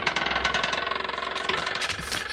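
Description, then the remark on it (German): A car engine runs with a rapid, rhythmic chugging throb, steady and fairly loud throughout, with no voices over it. “Da ist der Wagen.”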